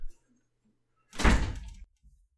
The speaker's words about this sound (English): Close the door, please. Okay, close the door, please.